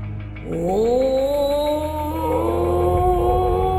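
A long, eerie cry of the monster Kori swells in from deep within a cave after a brief pause, its wailing pitch sliding upward and then holding steady and loud for several seconds over a deep, continuous rumble, with no one talking.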